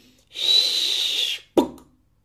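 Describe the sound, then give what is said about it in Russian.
A voice imitates an arrow: a breathy, whistling whoosh lasting about a second, then a brief pause and a sharp thunk as the arrow sticks into the ground, quickly fading. “что-то такое воткнулось в землю рядом с ним.”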